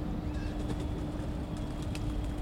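A pigeon coos softly over a steady outdoor background rumble, with a few faint higher bird chirps and no one talking.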